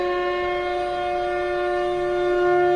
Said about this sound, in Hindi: तब कुरुवंश के वयोवृद्ध परम प्रतापी एवं वृद्ध पितामह ने सिंह गर्जना सी ध्वनि वाले अपने शंख को उच्च स्वर में बजाया जिससे दुर्योधन को हर्ष हुआ